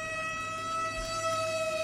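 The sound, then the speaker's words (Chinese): A fire engine's steady, high-pitched siren wail as it rushes to a mountain fire, holding a constant tone throughout, with bright harmonics above it and a low rumble underneath; no one speaks. “前来灭火的村民发现了我，消防车也响着警笛，匆匆赶到。”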